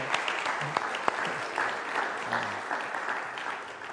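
Steady applause from an audience fills the whole stretch, a dense wash of many hands clapping at moderate volume with a few sharper claps popping out near the start.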